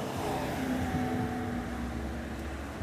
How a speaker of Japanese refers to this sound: 何台車通るんだしかもスピード出して。うん何回も車通って